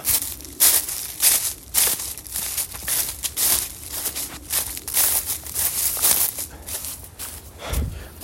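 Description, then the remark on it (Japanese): Steady footsteps crunch through dry fallen leaves, each step a crisp rustling burst in a regular walking rhythm, fairly loud, with no one speaking. “あ、この音は聞こえますでしょうかこの枯葉の”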